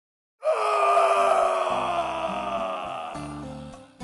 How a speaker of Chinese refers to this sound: 李安吼叫着，痛彻心扉，但是没人搭理。